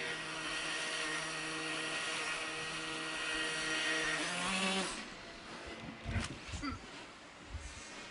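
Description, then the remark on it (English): A tail-sitter flying machine hovers with a loud, steady propeller whine and layered buzzing tones. Around five seconds the pitch rises, then dissolves into rougher, fluttering noise with scattered thumps. “it is capable of hovering, which has huge advantages for takeoff, landing, and general versatility”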